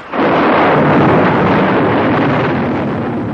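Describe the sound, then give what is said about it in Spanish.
A sudden, loud crack of thunder from a lightning strike bursts in and rolls on as a dense, roaring rumble that slowly fades over a few seconds, with no voices present. “Otra foto, clavada en la misma pared, es iluminada por un relámpago.”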